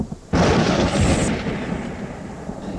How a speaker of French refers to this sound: Alors la tempête jeta sur l'érable une gerbe de foudre